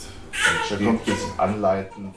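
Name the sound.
baby crying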